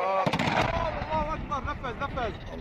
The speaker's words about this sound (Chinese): 政府军在乌伦库布拉展开了大屠杀了，运送救援物资的车队被击中。 紧接着，巨大的爆炸声从远方传来。